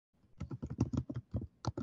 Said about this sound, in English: I'm gonna look it up. Now she Wait. typing ASMR. oh, you can hear it? Ooh, yeah.